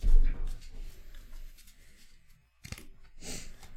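Papery riffling and shuffling of a deck of playing cards, in several short bursts with brief pauses between, fairly soft with faint background voices.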